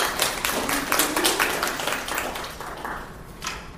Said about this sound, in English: So let's give her a round of applause for that.